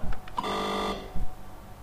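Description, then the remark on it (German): A single buzzy electronic beep from a home computer built into its keyboard, used with a Datasette cassette deck. It is an acknowledgment tone after Enter is pressed, signalling it is ready to start. It lasts about half a second at steady pitch with rich overtones, framed by a few soft clicks before and after. No one speaks. “Das war noch ein Quittungston, der uns sagt, okay, es kann losgehen.”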